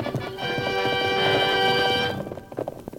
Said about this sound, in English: His horse, though powerful and fast, was no match for the charging Silver. Fear and panic filled the outlaw's face. He heard the hoofbeats, ever nearer, and then the masked man shout, I want you, Cavendish!